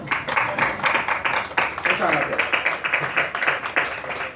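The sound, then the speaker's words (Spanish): An audience applauds steadily for the people who have come today, a dense patter of many hands clapping at once that holds at an even loudness for several seconds without a break. “yo lo primero es mm, a los que estáis aquí en la mesa, pedir un aplauso para los que han venido hoy aquí.”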